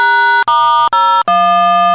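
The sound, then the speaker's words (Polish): A loud, harsh synthesized tone generated by a computer program, sounding overdriven and buzzy, changing pitch three times in quick succession: four steady, clipped segments separated by tiny gaps, with no voices. “Trochę to bo to się chyba przesterowuje.”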